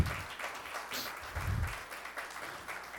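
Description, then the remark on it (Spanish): An audience applauds the King, a steady wash of many hands clapping together for about three seconds, dense and unbroken with a few swells in volume and no voices rising above it. “Del aplauso al rey.”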